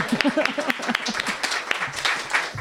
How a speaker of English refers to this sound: Um, okay, so this is LIC reading series. Hooray! Let's first, before I do anything, applaud.